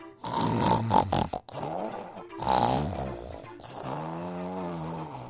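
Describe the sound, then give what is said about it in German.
Heavy, rumbling snoring, three long, loud snores in a slow rhythm with no talking; it sounds like a person imitating a big, fat dog snoring as it lies in a doghouse. “Aber dort lag ein großer, dicker Hund und schnarchte.”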